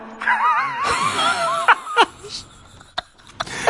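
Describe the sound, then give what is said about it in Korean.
A voice imitates ragged, heavy breathing heard over a phone call, of someone running frantically as if being chased: strained, wavering vocal huffs give way to a few sharp, breathy gasps spaced irregularly, fairly loud, like someone panting hard while running. “누군가에게 헐레벌떡 쫓기듯 마구마구 달려가는 거친 숨소리가 들리더래요.”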